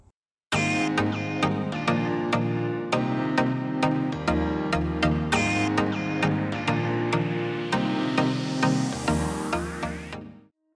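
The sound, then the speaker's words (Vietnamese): A short, loud instrumental intro jingle plays on its own, with a steady driving beat and bright sustained chords, ending in a rising sweep before cutting off. “lâu lắm rồi mới nghe lại cái nhạc intro á mọi người Nhớ thật sự”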